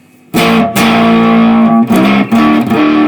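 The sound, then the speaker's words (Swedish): A loud, heavily distorted electric guitar played into a distorted tube amplifier rings out sustained notes, briefly choked and re-struck a few times, with a thick, saturated amp tone and no talking. “Men om vi tänker oss att du har det här distade ljudet, vi säger så här.”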